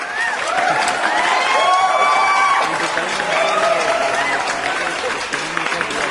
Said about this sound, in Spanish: Y aplausos para el niño Aplausos.